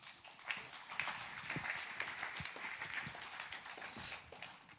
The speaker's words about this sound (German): Danke vielmals. Geben wir doch diesen zwei einen Applaus.